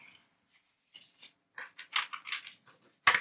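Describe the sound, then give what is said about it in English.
A tarot card deck is shuffled for a reading: soft, papery riffling bursts come in irregular clusters, ending with a sharper, louder slap as the deck is cut. No one speaks. “you can hear the sounds of the deck being shuffled here.”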